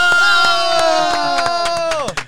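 An audience applauding a guest singer cheers with one long, sustained shout over steady rhythmic clapping, loud throughout. The cheer slides down in pitch and cuts off near the end.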